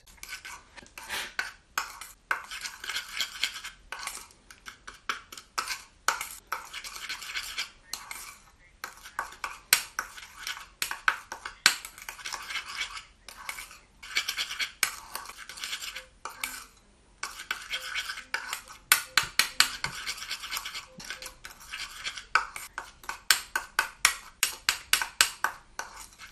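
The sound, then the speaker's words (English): Dry tooth powder ingredients, including orris powder and cuttlebone, being stirred and scraped together in a bowl with a utensil: brisk, rhythmic gritty scratching strokes with brief pauses, continuing for a long stretch with no talking. “Okay, yeah, that's all nicely mixed.”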